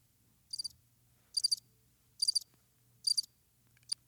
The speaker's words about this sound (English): Yep, just crickets.